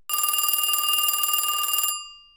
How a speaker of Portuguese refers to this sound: Então, numa noite, o telefone tocou.